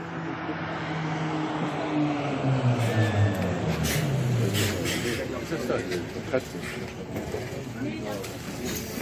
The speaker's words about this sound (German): Ja, die Glocken läuten. Das ist mein Signal.